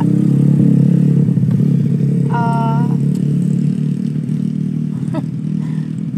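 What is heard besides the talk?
motorcycle passing by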